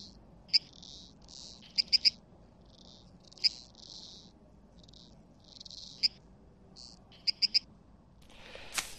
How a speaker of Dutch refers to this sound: Dus wat doen we eigenlijk? Met de hulp van de computer verlagen we die toon van de plant. Nou, Тогда можем слышать. En dan kunnen we het horen.